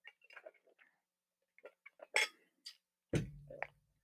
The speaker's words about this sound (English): I have to take a sip.